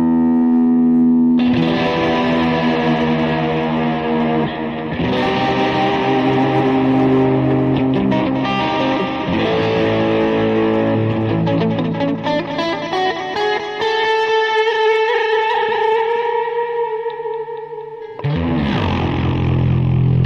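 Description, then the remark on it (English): An electric guitar plays sustained, heavily processed chords with distortion and echo, ringing out in long washes that shift every few seconds, loud and steady with no voices. “Is the guitar too loud?”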